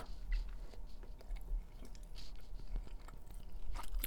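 Wet chewing sounds repeat irregularly as someone works through a mouthful of tough steak, with soft smacking and occasional crunchy bites and no talking.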